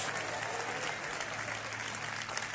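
A crowd claps together in steady, dense applause, given as a clap offering to the Lord, a continuous wash of many hands with a low hum underneath and no clear speech.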